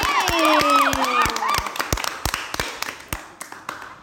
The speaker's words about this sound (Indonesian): Oke, tepuk tangan untuk kita semua hari ini.